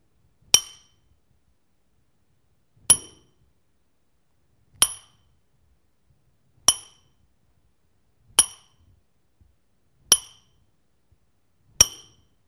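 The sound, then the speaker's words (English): A hammer strikes metal seven times in slow, steady succession, each blow a sharp ringing clang that decays quickly into silence, heard alone. “the hammer falls again and again and again.”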